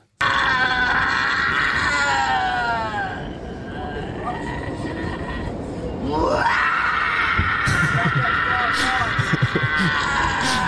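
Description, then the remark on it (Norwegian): A man wearing a headset belts out loud, strained singing along to something inside a rumbling subway car, his wavering voice rising and falling over the steady train noise, sounding almost pained. “Han sitter på, sitter på T-banen, eh, og det høres jo ut som han har det vondt, men han sitter med headset og synger etter en eller annen sånn”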